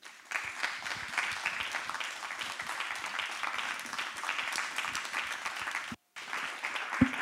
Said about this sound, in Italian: Io credo che, e qui finisco, che questo Signore che ci ha tenuto compagnia per tutto questo tempo meriti il nostro applauso come testimone del perché il passato è qualcosa che dobbiamo conservare, ma dobbiamo anche distruggere.